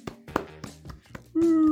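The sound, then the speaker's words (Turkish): A few sharp, evenly spaced hand claps, about five in a row, welcoming a guest, followed by a steady, sustained low-pitched tone that holds to the end. “Alkış.”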